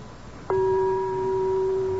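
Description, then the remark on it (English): A single bell, touched with a finger, rings once and rings on with a steady, sustained mid-pitched tone and fainter higher overtones, holding loud without fading over a low background hum. “Merely to touch this one bell with my finger.”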